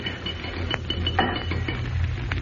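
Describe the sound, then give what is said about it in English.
A heavy descending ceiling mechanism lurches downward another half inch with a steady low grinding hum, broken by a few sharp metallic clinks and ratcheting clicks. No one speaks. “That was the ceiling. Dropped another half inch.”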